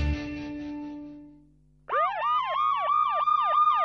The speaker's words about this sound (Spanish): Cuando escuchamos este sonido, nos preocupamos. Algo sucede. Pero a mí me gusta pensar que si una sirena suena es porque nos estamos ocupando. Estamos dándole pelea a la inseguridad.